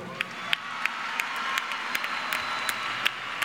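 A group of children applauding: a steady wash of scattered clapping with sharper, evenly spaced claps punching through about three times a second, moderately loud, with no talking.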